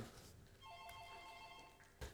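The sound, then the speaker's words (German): A telephone rings with a steady electronic tone that lasts about a second and a half, fairly clear against a low background hum, ending with a brief bump of noise. “Oh, hier klingelt es ja. Telefon.”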